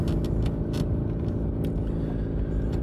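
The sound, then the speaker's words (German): Steady low engine rumble and road noise from an old, beat-up car being driven, with a few brief rattles and clicks on top; loud and continuous, with no voices. “Und schon wieder spreche ich zu euch aus einem fahrenden Auto.”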